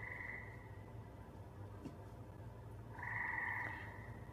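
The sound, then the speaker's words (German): Frogs croak in a steady, buzzing chorus that swells louder toward the end, with a faint low hum running underneath throughout; no one speaks. “Was quakt denn da?!”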